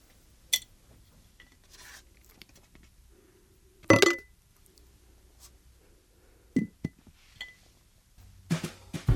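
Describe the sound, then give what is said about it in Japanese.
Small objects drop into a glass jar with sharp clinks and rattles: a faint tap early, one loud clattering drop midway, then a few quicker clinks toward the end, otherwise quiet. “ということで今日集めた好きをガラス瓶に入れたいと思います。”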